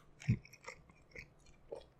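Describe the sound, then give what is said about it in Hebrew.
Quiet, muffled chewing with the mouth closed, a handful of soft wet crunches and squelches spread irregularly over two seconds, with no talking. “וזה כאילו אני לועס עם פה סגור, שתבין, מה אתה יודע?”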